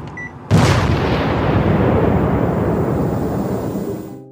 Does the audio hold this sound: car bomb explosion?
yes